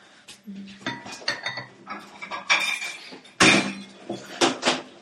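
A cake for an anniversary coffee celebration being unpacked: a busy run of handling noises, with scrapes, light clinks and knocks scattered throughout and one sharper, louder knock partway through. No one speaks.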